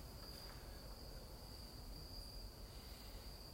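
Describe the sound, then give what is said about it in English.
A steady, continuous chorus of crickets chirping, a thin high-pitched trill running unbroken throughout, soft over a faint low background hum, with no voices. “Lord Jesus, as we quiet ourselves, we hear the crickets singing.”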